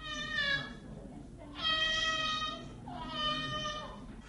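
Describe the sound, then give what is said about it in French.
A child cries in three long, wavering wails with short breaths between them, clear over a low rumble of background noise, in hills amid coffee and banana plantations. “Sur les collines, sur des kilomètres et des kilomètres, au milieu des plantations de café et de bananes, il n'y a plus personne de vivant et l'on est tout surpris d'entendre tout d'un coup un enfant qui pleure.”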